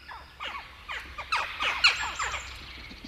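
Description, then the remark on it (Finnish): A chorus of jackdaws calling over one another, short sharp 'tchak' notes repeated rapidly in overlapping bursts, fairly loud, with a faint low rumble underneath and no talking. “Viikon luontoääni: Naakka”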